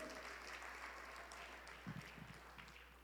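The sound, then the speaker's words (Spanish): A church audience claps steadily, applauding for God, a dense wash of many hands applauding together, with a few scattered voices rising briefly underneath. “Denle fuerte aplauso, Señor, pues, si es para Él.”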